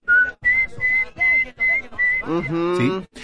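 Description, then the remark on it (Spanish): Someone whistles to imitate turkey poults peeping to the mother turkey: about six short, high, evenly spaced peeps, then a lower, wavering whistle to finish. “Porque los pollitos le hacen así.”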